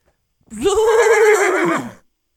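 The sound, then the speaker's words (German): A single horse whinnies, a loud, wavering neigh lasting about a second and a half that rises sharply, trembles, then drops away, with quiet before and after. “Zwei Pferde treffen sich.”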